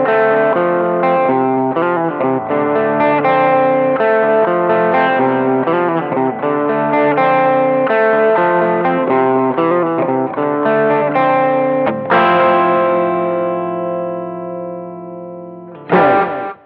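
A distorted electric guitar riff in a 70s rock style, loud and up close, with steady chugging chords that ring out into a sustained chord before a final hit. No talking.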